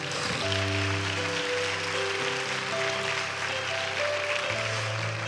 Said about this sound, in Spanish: Si es así, dele un fuerte aplauso al Señor Jesucristo, hermano.